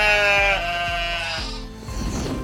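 A sheep bleats loudly, one long wavering baa with a shaky, pulsing tremble that lasts about two seconds, with nothing else audible.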